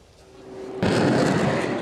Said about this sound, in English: Across the narrow Taiwan Strait, it's a battle of drills. Taiwan just wrapped up a week of annual live fire exercises.